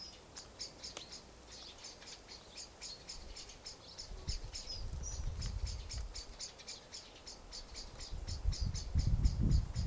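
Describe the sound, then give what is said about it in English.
Steady, rhythmic high-pitched insect chirping fills an outdoor scene, with scattered bird calls mixed in and a low rumble of wind or other noise swelling toward the end. No one speaks. “You try that with me, just to be with this sound of the birds on this recording.”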